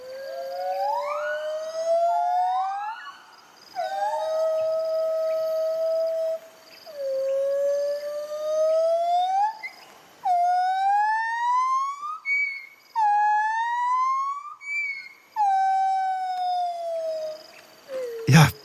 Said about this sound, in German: Ähm, genau, und wir haben so ein kleines Duett für euch dabei. Das wollen wir euch nicht vorenthalten. Ähm, so klingen singende Gibbons.